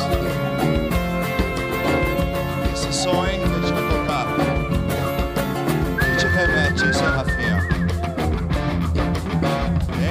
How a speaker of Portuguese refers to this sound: Sensacional esse assobio.